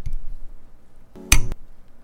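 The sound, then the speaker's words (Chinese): A single bright clink of glasses touching in a toast, sharp and fairly loud with a short ringing tail, preceded by a quiet low background murmur. “赶快来敲杯， 对，先敲杯仪式，来干杯哦、 干杯。”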